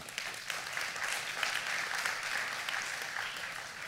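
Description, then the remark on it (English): The Sunridge crowd applauds itself for its increased giving, a dense wash of many hands clapping at a fairly even loudness for the full few seconds, with no voices standing out. “You guys should applaud for yourselves right now.”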